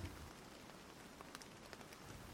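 Steady rain falls in a soft, even hiss, with scattered drops tapping sharply on a surface. It's quiet and continuous, with no voices.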